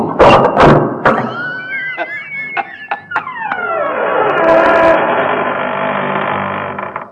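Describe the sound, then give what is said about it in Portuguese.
Doors opening at the Shop Center: a few heavy thumps and clunks, then a series of short squeaky clicks over a rising mechanical whir that settles into a steady, fairly loud hum. “E quando chega lá no Shop Center... Quando as portas se abrem.”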